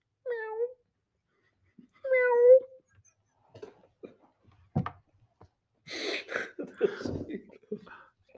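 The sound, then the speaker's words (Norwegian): A person imitates a cat meowing twice in a contest of who meows best, playing a 'communist hand-cat' and a 'capitalist dog-cat': two drawn-out, nasal mews with a short pause between them, followed by a sharp thump, then chatter and laughter. “En kommunistisk håndkatt. uh, ja, uh, og en uh, litt sånn kapitalistisk hundkatt.”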